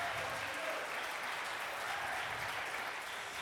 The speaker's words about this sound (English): Can give them a big round of applause? Fantastic.